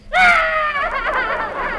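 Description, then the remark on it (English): A child yells in a loud, high-pitched, sustained cry that bursts in suddenly, then wavers and wobbles for nearly two seconds, alone with no talking. “what are you yelling about?”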